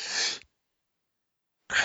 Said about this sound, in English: Ah, oh, bad bad sneeze. Whew.